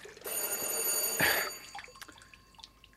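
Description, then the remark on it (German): A bell, rung by someone at eleven at night, sounds in one sustained burst of bright, high metallic tones lasting just over a second, then cuts off, leaving faint scattered clicks and ticks. No one speaks. “Also nachts um elf klingelt scheinbar doch jemand.”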